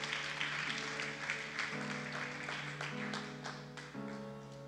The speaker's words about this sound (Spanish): Oh, hermano, ponte de pie, ponte de pie, ponte de pie y dale fuerte las palmas al Señor.